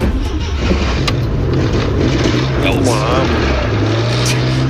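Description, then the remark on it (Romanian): An Oltcit small car engine fitted with a sport exhaust rumbles loudly, a steady low drone that lifts briefly in a short rev partway through. “Nu, ăsta e un all seat clar, îl recunosc. Un all seat preparat cu tobă sport sau ce?”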